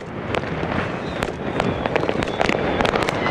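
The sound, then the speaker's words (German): Fireworks crackle and pop in a dense, continuous barrage, with sharp bangs standing out every half second or so over a steady rumble of explosions. “Man muss sich einfach bewusst sein mit diesen Feuerwerk, mit diesen Knallerei.”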